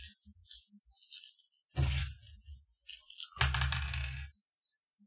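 Dice clatter: a few light clicks, then two distinct rolls, each a burst of rattling and tumbling across a hard surface before settling. No one speaks.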